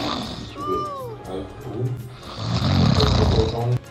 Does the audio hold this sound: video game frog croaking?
no